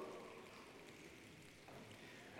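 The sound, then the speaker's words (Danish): A soft, steady patter of people imitating dripping rain together, a continuous hiss-like rustle rather than real rainfall, holding evenly for a couple of seconds with no talking. “Kan I høre, hvor det drypper?”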